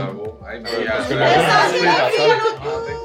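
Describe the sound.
A group of people chatting over one another at an evening gathering, several overlapping voices forming a lively, continuous murmur, fairly loud throughout.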